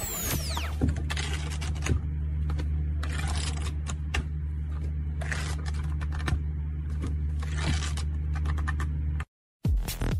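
Domino tiles being shuffled on a table: a dense, irregular clatter of hard plastic clicks and knocks for about nine seconds over a steady low hum, then a sudden stop.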